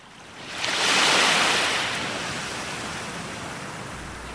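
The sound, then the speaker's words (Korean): Rough, surging waves of a great river crash in as a broad wash of roaring noise that swells within the first second, then rolls on steadily with a constant churning hiss, loud, with no voices. “헝헝 아닌 게 아니라 물결도 사나운데 배가 없네.”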